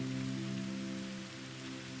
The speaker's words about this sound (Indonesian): Malam ini, hujan tak kunjung reda. Namun, Malam ini tak begitu sepi karena ada suara hujan.